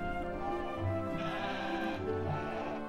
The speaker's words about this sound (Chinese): 母羊咩咩的和宝宝们告别。离开了家。